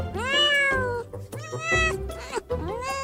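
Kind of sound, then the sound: animal, cat meowing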